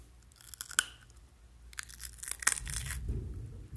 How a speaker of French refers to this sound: Après ça, on prend une carotte, puis ben, on la mange tout simplement.